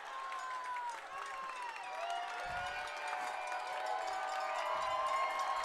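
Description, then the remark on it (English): A packed football stadium crowd, the Big Red Faithful at Memorial Stadium during a high school game between Port Huron and Northern, roars loudly and continuously, a dense wash of cheering, whistles and yelling that swells steadily, with scattered clapping mixed into the din. “The Big Red Faithful getting loud here at Memorial Stadium.”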